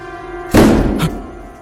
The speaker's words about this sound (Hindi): उनके रूम का खुला हुआ दरवाजा एकदम से धप से बंद हुआ ना जोर से हवा चली ना ही कोई आया गया और ना ही कोई आंधी तूफान